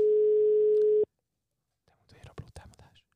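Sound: phone call ringing tone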